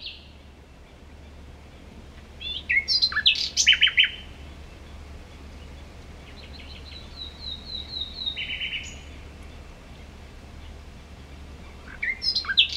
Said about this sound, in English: and it's designed to sort of raise awareness of that dawn chorus, which is the, the name for that moment right before it starts to get bright in the morning when all the animals, namely birds, are starting to be the most vocal.